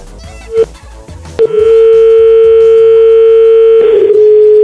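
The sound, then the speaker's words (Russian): A short beep, then a loud, steady telephone ringback tone that holds unbroken for about three seconds while calling someone's phone, clear over faint background noise. “Это я опять что то много гудков.”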